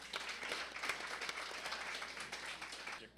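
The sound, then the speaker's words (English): Steady audience applause for a guest, a dense wash of many hands clapping at once with scattered sharper claps, holding at an even, moderate level throughout and fading slightly at the end. “Let's give Greg a round of applause.”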